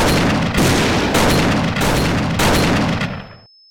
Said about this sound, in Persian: 67 گلوله به سمت دانشجوهای معترض شلیک شد.